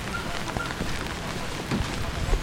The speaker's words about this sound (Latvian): Pamatīgi apmācies, līst.